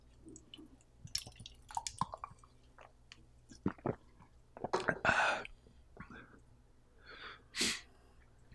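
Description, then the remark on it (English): Quiet mouth sounds from someone sipping seltzer: scattered wet clicks and swallows, with two short fizzy, hissing slurps standing out. No one talks. “I'm going to take a, a sip of seltzer here just to cleanse my palate.”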